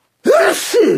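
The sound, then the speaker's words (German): A single loud sneeze bursts out after a moment of silence, with a sharp inhaled onset followed by a forceful, breathy expulsion. “Gesundheit.”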